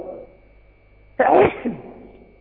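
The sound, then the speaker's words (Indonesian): A single sharp sneeze bursts out after a quiet stretch, followed by a brief exhale as it fades. “Alhamdulillah. Yahdikumullahu islihu balakum.”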